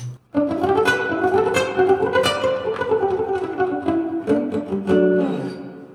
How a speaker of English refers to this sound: I have a reverb pedal, reverberation. I'll turn that up and I'll turn it off too. So here's off, and here's with.